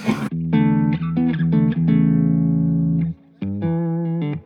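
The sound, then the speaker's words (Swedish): A distorted electric guitar plays a quick run of repeated picked notes leading into a long buzzing sustain, then after a brief pause a final held note rings out. No one speaks. “Däremot så distar, när man demar det eller, eh, eller andra typer av effekter, då, är det inte, då, är ju, då kan man ju spela på på ett annat sätt.”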